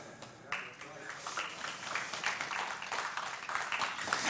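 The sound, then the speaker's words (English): A church audience breaks into steady applause during a sermon, a dense wash of many hands clapping at once that swells after a brief pause and holds at a fairly loud, even level. “I mean, I mean, and, and I know you clap, but the reality is right.”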